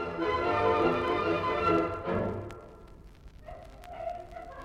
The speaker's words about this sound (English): Oh, they're singing. So they're spinning women. I think they've they've been spinning hemp and flax on the long winter evenings. Um, young girls gathered by tens or dozens in a group.